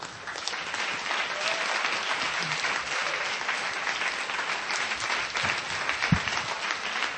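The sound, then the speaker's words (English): Sustained applause from a church audience recognizing members who have returned from the Philippines or are going out, a dense, steady clatter of many hands clapping at an even level for several seconds with no clear voices above it. “You know, let's applaud them for going out.”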